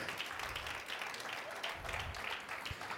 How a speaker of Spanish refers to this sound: Dele un aplauso fuerte al Rey de Gloria, vamos.